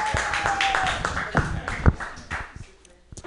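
An audience claps steadily in a dense wash of applause that holds for a few seconds and then gradually tapers off, with a few louder individual claps standing out.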